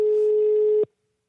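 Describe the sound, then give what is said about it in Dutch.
A telephone ringback tone on an outgoing call placed during a live broadcast to Time to Connect, the line no longer crackling: one steady, mid-pitched electronic beep lasting almost a second, then cutting off abruptly into silence. No one speaks. “Hij gaat over en hij kraakt niet meer.”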